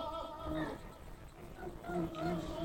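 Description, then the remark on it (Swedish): A donkey brays loudly, a harsh, strained call whose pitch see-saws up and down in a couple of drawn-out heaves across the whole moment. “Åsnan skriker sönder sig helt autentiskt.”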